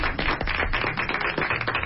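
A crowd breaks into applause, a dense, steady wash of many hands clapping at once that keeps an even loudness throughout, with no voices standing out.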